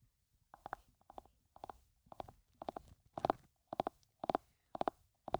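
Hooves of running animals pound in a steady galloping rhythm in a dark forest, each beat a quick cluster of thuds, growing louder. No voices.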